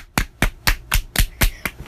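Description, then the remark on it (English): Hands clap in a steady, even rhythm, about seven sharp, bright smacks roughly a quarter second apart, fairly loud and with no talking over them. “we switch the topic, give them lots of rates and let's clap for them.”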